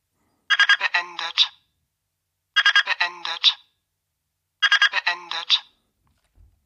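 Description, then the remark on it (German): A digital thermometer, held in a fist, sounds its alarm on reaching its preset temperature of 34 degrees: three identical bursts of rapid, high-pitched electronic chirps, each about a second long and separated by short pauses, sounding alone without any talking. “Dieser Alarm geht eine halbe Minute.”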